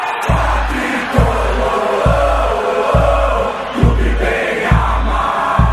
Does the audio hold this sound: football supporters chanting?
yes